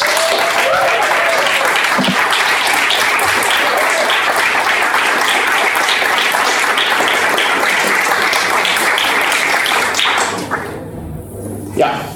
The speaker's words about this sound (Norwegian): La oss bare gi dem en applaus. For det.